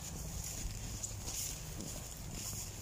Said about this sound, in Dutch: Ja. We lopen er nu even naartoe. Door het hoge gras.